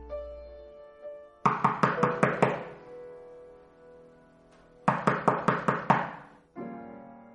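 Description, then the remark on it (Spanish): Two quick bursts of about six weak knocks each on a door on an upper floor, separated by a pause, crisp, over a soft sustained musical drone. “me arrastré como pude hasta el piso superior y llamé débilmente a la puerta.”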